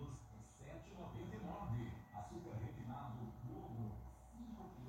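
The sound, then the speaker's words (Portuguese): An egg-seller's truck passes in the rain without stopping, its loudspeaker blaring a continuous amplified voice announcement, steady and fairly loud, muffled and echoing, with no pauses across the stretch. “Passou o carro do ovo.”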